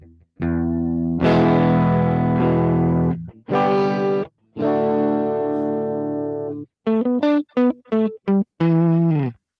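A dry, clean electric guitar signal with no reverb plays a few ringing chords, then a run of short choppy stabs. Every note stops abruptly with no echo or room tail, fairly loud, with no talking.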